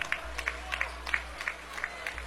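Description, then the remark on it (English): South Iron basketball fans applaud as their team dribbles out the final seconds of a 59–47 game against Arcadia Valley, a steady, rhythmic clap, about seven sharp claps evenly spaced over a low constant hum, with no voices on top. “Applause starting from the South Iron fans.”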